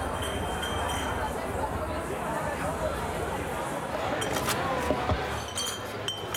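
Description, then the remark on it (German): Deposit cups and glasses clink repeatedly as they are collected into Viva Con Aqua shopping carts for a donation, sharp little knocks scattered over a steady crowd murmur, with a cluster of brighter clinks near the end. “Also hier wird noch äh, fleißig jetzt äh, Becher Pfand eingesammelt.”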